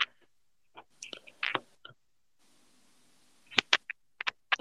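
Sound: someone drinking water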